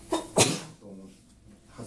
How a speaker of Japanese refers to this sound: なんでくしゃみされましたね人間人間ですからね